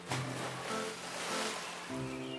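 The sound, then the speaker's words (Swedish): A heavy belly-flop splash straight down into water, followed by a couple of seconds of churning, sloshing water, moderately loud, with a low steady tone running underneath. “Hubert gjorde sen ett riktigt magplask rakt ner i vattnet.”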